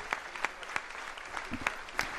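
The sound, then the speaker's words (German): Sustained applause from a large audience in the auditorium of the Palais du Faro in Marseille for Pope Francis after his speech closing the third Mediterranean meeting, a dense wash of clapping with a few sharper, louder claps standing out, with room reverberation. “Viel Applaus hier für Papst Franziskus und seine Worte im Auditorium des Palais du Faro in Marseille.”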